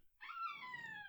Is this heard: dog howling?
yes